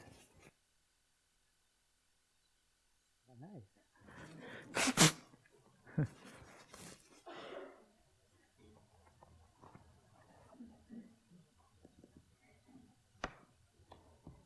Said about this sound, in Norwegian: Jeg må jo snyte meg litt.